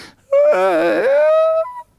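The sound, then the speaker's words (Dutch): A baby in the audience lets out a single drawn-out whimpering cry, wavering and then rising in pitch before trailing off, fairly loud with no talking. “Het publiek is erg jong vandaag, perfect, welkom allemaal.”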